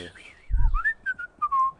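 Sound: a person whistling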